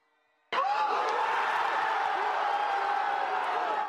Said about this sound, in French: Des cris de soulagement à la 81e minute. Après une deuxième mi-temps compliquée pour les Bleus, Kylian Mbappé offre un doublé décisif contre le Danemark.